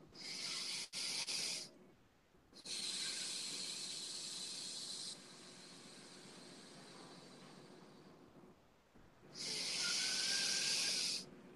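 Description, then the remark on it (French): Slow, airy breathing with no talking: a short hissing breath, then a long one that softens halfway through, and after a brief pause another strong, steady breath. “Une respiration.”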